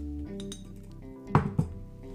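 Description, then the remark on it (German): A metal tea filter, used with a small 0.35-litre teapot, clinks twice in quick succession, two bright, sharp metallic knocks over a low steady hum, with softer handling sounds just before. “Ich habe jetzt hier so einen Metallfilter.”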